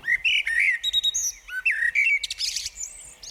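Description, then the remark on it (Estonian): A blackbird sings a rich, fluting song of varied whistled phrases, clear, with a few higher twittering notes near the end and no voices. “mustrastad pesitsevad harilikult isegi kaks-kolm korda aastas”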